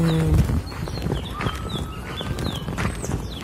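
Small birds chirp outdoors, a scattering of short, high twittering calls repeated throughout, set against a steady low background rumble with some knocking, clopping sounds.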